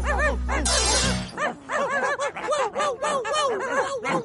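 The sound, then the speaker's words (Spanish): A burst of noise like breaking glass gives way to a rapid chorus of small dogs yapping and barking in a song, overlapping barks packed tightly together over a musical backing. “Oye, para la próxima, si lanzan esta canción de nuevo, quiero que me contraten para hacer la voz de los perritos.”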